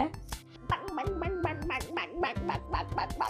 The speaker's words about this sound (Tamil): வாத்து தான் கண்ணில் பட்டுச்சு அதுக்கு கொஞ்சம் இருந்த தீனி எல்லாம் அப்படி அப்படி அப்படி கிட்டியும் கிமியும் தீக்கு போட்டுட்டு ஒரு பெரிய வாத்து அதை சுத்தி குட்டி மூணு வாத்து